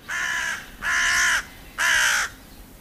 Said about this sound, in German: Rabenkrähe.